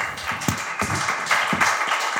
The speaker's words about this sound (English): Give this gentleman a round of applause. This is awesome.